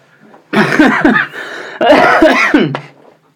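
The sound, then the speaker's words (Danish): Two harsh, muffled coughs, each a dense burst with a raspy tail, separated by a brief pause, coughed into a sleeve. “Hoster du lige hånden der? Ja, det, nej, i mit ærme i virkeligheden, men det synes jeg er en dårlig idé.”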